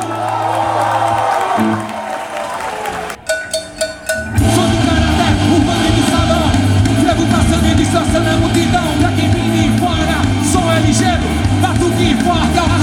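A large crowd bursts into loud, sustained applause and cheering after a brief lull, the clapping and shouts blending into a dense roar with a steady low hum underneath.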